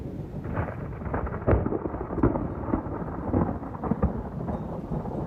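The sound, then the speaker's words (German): A thunderstorm at a woodworking workshop, with continuous low rumbling thunder that swells and fades in waves, backed by steady rain hiss; no one speaks. “Ein Gewitter hat uns einen Strich durch die Rechnung gemacht.”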